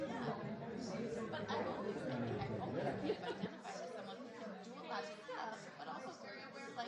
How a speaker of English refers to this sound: Just, I know it's chaotic, but let's wait moment because everyone is talking to each other. And it's. Um, yeah, I'm sure it's really noisy.